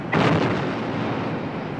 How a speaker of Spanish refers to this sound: Y se produce el cañoneo más formidable jamás visto hasta entonces por la historia. 230 cañones en un lado y en otro, intercambiando balas de larga distancia, un cañoneo que dura más de hora y media.